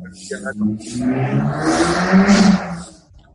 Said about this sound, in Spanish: por cerrando tu ventana, porque tienes a un vecino que corre coches de carreras, ¿o qué? No, eh, no fue ruido mío, ¿eh?